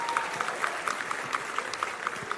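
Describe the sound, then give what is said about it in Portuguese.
An audience breaks into steady applause for a young man in a cap being called up from the crowd, a dense wash of many hands clapping at an even, moderate loudness throughout, with no voices standing out above it. “É, palmas pro. pro esqueci o nome do Mongo, mas vai vir aí.”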